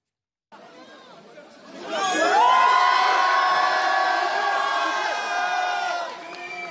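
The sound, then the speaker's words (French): A large outdoor crowd of Lille residents cheers and shouts enthusiastically as a man leaves the Braderie de Lille in Lille, France, the roar swelling after a couple of seconds of murmuring and holding loud and sustained, with high voices and whoops mixed into the din. “et quand je vous disais qu'il est très apprécié, c'est lorsqu'il a quitté cette euh, fameuse braderie de Lille, ovationnée par les Lillois.”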